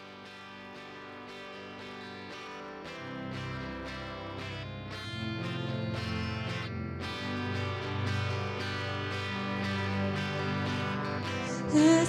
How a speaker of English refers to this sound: Oh, and since it's been a while since we've heard the theme song.